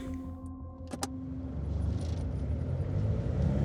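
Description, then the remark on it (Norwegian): Steady low engine rumble inside a moving car on the way to Lørenskog, building gradually louder, with a couple of brief clicks and a faint tonal hum early on; no one speaks. “sitter Inger-Lise i bilen på vei til Lørenskog”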